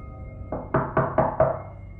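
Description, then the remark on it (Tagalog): Five knocks on an old bathroom door in a quick, steady rhythm, moderately loud, with only faint background hum and no voices. “Nilapag ko ang pusang itim sa sahig at marahan kong tinungo ang pintuan ng luma naming banyo. Kumatok ako.”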